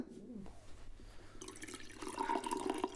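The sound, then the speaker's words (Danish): Coffee being poured into a cup in a home studio in a room at the Rasmus Rask dormitory, a steady trickle that starts after a quiet moment and grows fuller and slightly higher in pitch as the cup fills. “Se, jeg kan lige hælde lidt op til dig”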